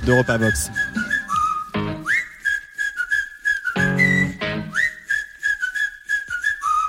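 A song opens with a clear, melodic whistled tune carried over a steady beat and bass, the whistle gliding between sustained high notes in a relaxed rhythm. No one talks.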